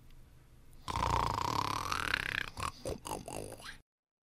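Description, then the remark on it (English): A loud snore: one long, rasping, rumbling breath followed by a quick run of shorter snorting bursts, with no talking. “So let's sense, for example, what a written URL might sound like gov might be perceived as a snoring sound.”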